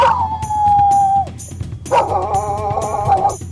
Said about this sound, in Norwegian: Lyden av eh, hund.